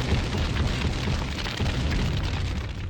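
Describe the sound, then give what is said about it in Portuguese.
A MOAB bomb explosion sound effect as a sustained, heavy roaring rumble with deep low-end boom, loud and steady for about three seconds, with no distinct single blast or voices. “Olha a eleição, solta a moab, fogo no turno, moab, moab, moab, moab, moab, moab.”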